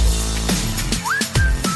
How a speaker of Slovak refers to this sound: Možno v rádiách vám moderátori rozprávali, že je to krásna pesnička o píšťalke. Ako tam píska ten interpret a je to, je to taký krásny letný song.